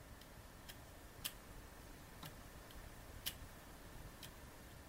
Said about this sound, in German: Da drücke ich Leertaste mit N wie neu. Jetzt hören wir und fühlen einen Cursor blinken.